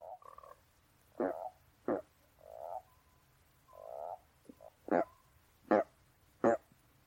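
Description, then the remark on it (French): A male toad, clasped by another male, gives a soft little release call: a string of about eight short, chirping croaks at irregular intervals, with no talking. “l'autre mâle fait une espèce de un petit cri comme ça tout doux”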